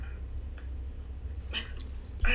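hiccup

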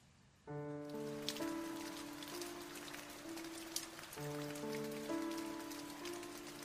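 heavy rain pouring down

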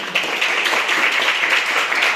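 audience clapping

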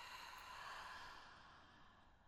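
slow deep breath out

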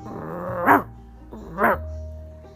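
dog barking loudly

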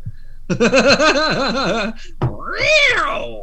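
cat meowing

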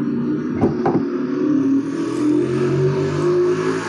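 motorcycle passing by outside

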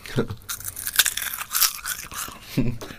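crunching potato chips

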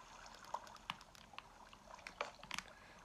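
flowing water

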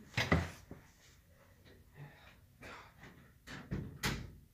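door being shut

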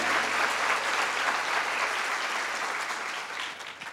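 audience applauding loudly

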